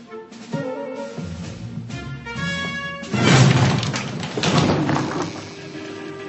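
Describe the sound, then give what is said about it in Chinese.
A bedroom door being kicked in: a few heavy thuds against wood build to a loud, splintering crash around the midpoint, then another rough bang, with music playing underneath. “你把我的房门给踢烂了。”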